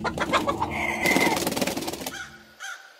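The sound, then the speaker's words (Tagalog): Three black chickens being offered by a grandfather in the evening cluck in quick, choppy bursts that swell into a louder, raspy squawking flurry, then trail off with a final short cluck. No talking. “Kinagabihan ng araw ding iyon, nag-alay ang aking lolo ng tatlong itim na manok.”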